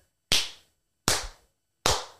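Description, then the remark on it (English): Three sharp, loud hand slaps on skin, evenly spaced about a beat apart, each a crisp smack with a short ringing decay and silence in between, no voices. “like like ass slapping.”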